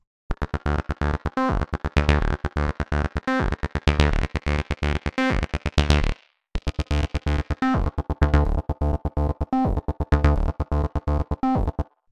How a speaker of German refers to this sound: Links oben kann ich die Wellenform ändern von Sägezahn auf Rechteck.